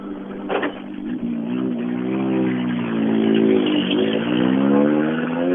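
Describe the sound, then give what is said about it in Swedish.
A car engine with straight pipes and no muffler, only an empty hanger loop at the back, revs loudly and raw, its buzzing drone climbing and dipping in pitch for several seconds, with no voices over it. “Där skulle det nog ha hängt en ljuddämpare tror jag. Så där var det raka rör.”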